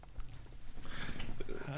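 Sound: coins jingling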